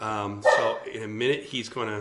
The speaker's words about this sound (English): That's the dog. He's saying amen.